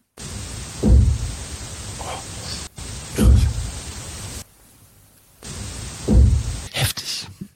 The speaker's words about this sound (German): Obacht, wir spielen den Ton ab. Spiel's nochmal ab. Obacht, gleich am Anfang hört man's klopfen.